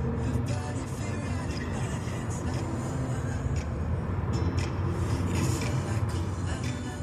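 Steady low engine rumble and road noise from inside a moving Volkswagen car driving from the Rhineland to East Berlin, continuous and even throughout with a faint hiss above; no one speaks.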